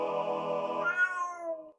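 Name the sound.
tomcat meowing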